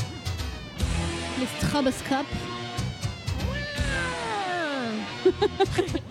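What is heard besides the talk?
cats meowing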